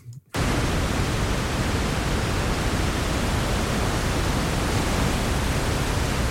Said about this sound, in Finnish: no niin, sitten Otetaan valkoinen kohina.